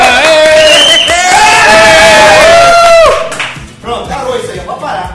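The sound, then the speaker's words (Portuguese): A loud burst of enthusiastic applause mixed with high, ringing cheers and whoops from a crowd, holding steady for about three seconds before fading into scattered voices. “Mais entusiasmo nas palmas.”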